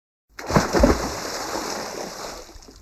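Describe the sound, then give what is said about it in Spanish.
Bodies thrown by women over a ship's deck plunge into the sea with a couple of loud, heavy splashes, followed by a steady hiss of churning water and surf that slowly fades. No one speaks. “Así que las mujeres decidieron lanzarlos también sobre la cubierta hasta caer directamente al mar.”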